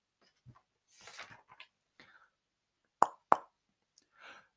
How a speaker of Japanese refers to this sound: 友弘の母が部屋のドアをノックした。しかし、イヤホンをしていた彼は、ノックの音など轟音で聞こえなかった。